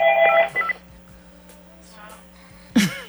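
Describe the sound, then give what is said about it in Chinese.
A quick run of loud, steady telephone keypad dialing tones, each beep a bright two-pitch chime, then a quieter stretch with faint murmuring and a sudden short breathy burst near the end. “嘿 刚刚电话太大声了， 啊， 所以我突然 停顿了，不好意思，”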